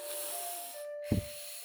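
A slow, deep breath drawn in with a soft airy hiss during a guided prayer, a brief pause, then a heavier puff as the air is let out, quiet, with no talking.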